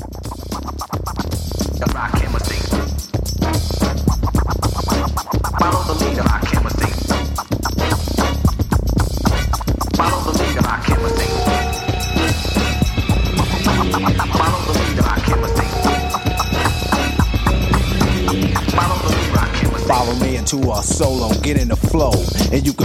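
A dense late-1980s hip-hop track plays loud and continuous, with busy breakbeat drums, horn-like stabs and sharp turntable scratches cutting through the mix throughout.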